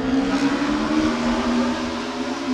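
A loud, continuous engine roar of racing motorcycles at full speed between buildings on normal streets, about three meters away, with a sustained droning whine that holds steady for a couple of seconds, without any talking.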